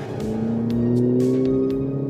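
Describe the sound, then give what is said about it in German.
A sports car engine idles and rumbles at low speed as the car rolls slowly to the entrance of a racetrack under a clear blue sky, its deep steady drone with slowly shifting tones, fairly loud, with no one speaking. “lässt die Maschine langsam zur Auffahrt der Rennstrecke rollen.”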